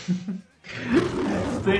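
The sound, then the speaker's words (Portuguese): A loud, rasping lion roar imitated by a human voice rises after a brief pause and holds steady for about a second, preceded by a short bit of talking. “Marquito, rugido de leão aí”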